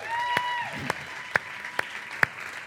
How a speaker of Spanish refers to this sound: Eh, ok, por cierto, damos, damos un aplauso a esa banda otra vez.